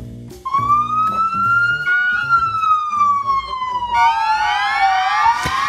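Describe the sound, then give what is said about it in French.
Not real police sirens but police-style sirens played live by musicians in the middle of a street in Brooklyn: a sustained gliding wail that rises and falls over a busy rhythmic backing, joined midway by a second brighter siren tone, loud and continuous throughout. “Alors ce que vous entendez, ce ne sont pas de vraies sirènes de police, ce sont euh, des sirènes jouées par des musiciens sur scène, enfin sur scène si j'ose dire.”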